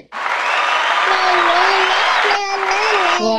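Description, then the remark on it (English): A burst of crowd applause sound effect played from a device, loud and steady for a few seconds, with a cheering voice or whoop rising over the dense clapping near the end. “Okay, I have an applause thing.”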